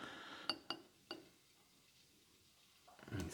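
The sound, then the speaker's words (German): Three quick, light clinks of small shot glasses, then a quiet pause before a brief soft splash of liqueur being poured into them at the end. “Und ich gieße uns das jetzt auch mal in die kleinen Schnapsgläschen.”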